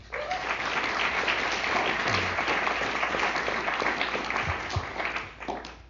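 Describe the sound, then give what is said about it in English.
Steady applause from an audience welcoming an author, a dense wash of many hands clapping at an even level for several seconds before starting to thin out near the end. “So let's hear it for Tara.”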